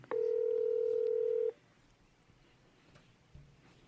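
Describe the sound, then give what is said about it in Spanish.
A phone call's ringing tone sounds once as someone calls their father, a loud steady electronic beep lasting about a second and a half, then cuts off, leaving a quiet hum while the line waits. “Estoy llamando.”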